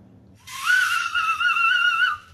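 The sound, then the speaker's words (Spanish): A night watchman's whistle, blown as he walks his rounds with a light in a village, sounds one long, shrill, steady blast lasting nearly two seconds, loud, after a brief low murmur at the start. “Pues sí, anda alumbrando y va con un silbato.”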